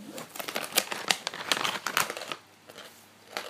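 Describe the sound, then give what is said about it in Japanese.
Crisp, dry crunching of a crispy seaweed snack called Karikko Wakame, harder than potato chips, a rapid series of crackly bursts for about two seconds, then a pause and one more faint crunch. “だからバリバリ食いながらお送りすんなっつって”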